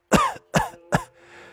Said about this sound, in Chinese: 云中燕说到这儿，再次的咳嗽起来，而且接连吐了几口黑血，眼看着这人就快不行了。